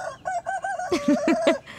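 A rooster crows loudly, a string of quick harsh notes rising into a raspy, pulsing cock-a-doodle-doo, with no voices around it.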